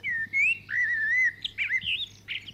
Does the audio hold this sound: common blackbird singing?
yes